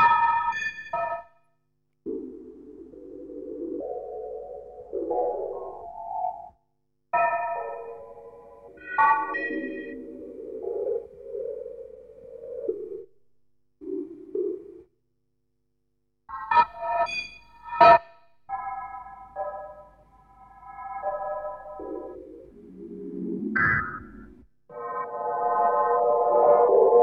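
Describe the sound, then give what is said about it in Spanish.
Early electronic music built from synthetic sine tones, Stockhausen's Studie II, played from a slightly worn microgroove record: stacked, buzzing tone clusters that swell and cut off abruptly, separated by brief silences, with occasional sharp bright attacks. No voices. “con un ejemplar del estudio 2 de Stockhausen, en un disco de, creo recordar que era de, de Deutsche Grammophon, un disco microsurco un poquito cascado.”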